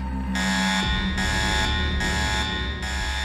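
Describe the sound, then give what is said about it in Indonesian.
An electric school bell rings continuously, a loud, harsh buzzing tone with steady pulsing bursts about once every 0.8 seconds, filling the whole stretch without any voices. “Tuh kan, jadi keburu bel.”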